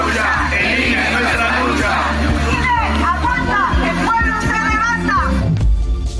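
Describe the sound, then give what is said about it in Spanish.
A large crowd of Mexicans living abroad, in the pink-tide protest in defense of Mexico's INE and against López Obrador's Plan B, shouts and chants together in loud, overlapping voices, with rising cheers and whoops, amid a steady low rumble of outdoor noise. “Bueno, así se escuchó la marea rosa que también llegó a estas capitales del mundo, donde mexicanos que radican allá salieron también a manifestarse en contra del plan B de López Obrador y en defensa de la democracia”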